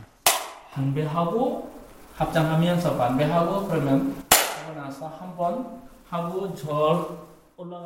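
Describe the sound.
A monk strikes a bamboo clapper stick as a signal for participants to kneel, giving two sharp wooden cracks, one near the start and another about four seconds later, ringing out clearly over a person talking steadily throughout.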